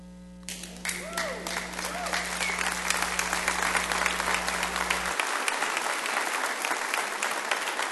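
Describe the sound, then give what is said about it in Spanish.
A church audience bursts into sustained applause in praise of God, dense overlapping clapping that swells quickly and holds steady, with a low hum underneath for the first few seconds before cutting out. “Dale aplausos, dile Señor, tú eres magnífico.”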